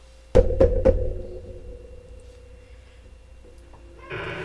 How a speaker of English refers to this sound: Sorry, my door is very heavy and loud.